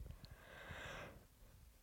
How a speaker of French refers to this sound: Excuse-moi, je baille.